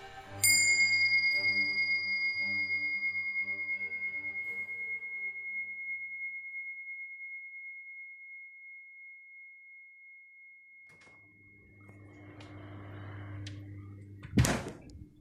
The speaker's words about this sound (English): But this is just a fridge. You're just in a kitchen. You're just in your house.